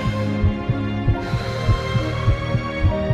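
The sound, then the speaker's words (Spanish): A rapid, racing heartbeat (tachycardia) pounds in low, muffled thumps, about two beats per second, steady and insistent over a faint sustained hum, with no voices. “Mi corazón palpita aún más no, no, taquicardia.”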